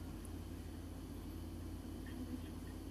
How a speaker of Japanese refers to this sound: めったに使わないインパクトドライバーを取り出した。ね、ギュンギュンっていう、やりたくなりますよね、これね。無駄に。